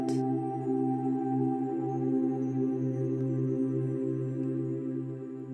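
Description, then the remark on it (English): Soft, sustained meditation music: layered drone tones hold steady throughout, with a low hum that gently pulses. No voices, just the calm, continuous wash of sound. “Now become aware of the music that you hear in the background.”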